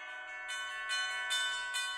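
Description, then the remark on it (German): Church bells in a town on the Main river ring in a steady, overlapping peal, with bright strikes about every half second over a sustained shimmering hum of harmonics, no voices present. “Mein Glockengeläut dröhnt bis zum Himmel, zum gleichen Himmel, aus dem an jenem Abend die Bomben fielen.”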